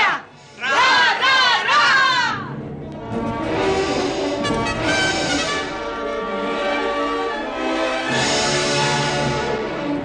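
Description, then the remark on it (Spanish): A group of voices shouts a rhythmic cheer chant for the Greek goddess of intelligence, loud and energetic, with a few sharp pitched bursts at the start followed by a sustained stretch of chanted, unison shouting. “Pues una porra para la diosa griega de la inteligencia que hoy mencionamos en las aventuras de Ulises.”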